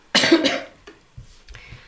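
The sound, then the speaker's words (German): A single loud, harsh cough bursts out, followed by a couple of faint breaths or throat sounds trailing off. “Ich muss kurz husten.”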